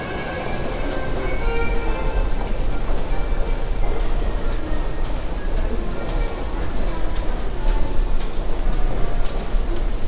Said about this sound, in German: Während ich den Tunnel durchquere, verschwindet das Akkordeon mehr und mehr im Raum. Der treibende Rhythmus der Fußgänger übernimmt die Führung.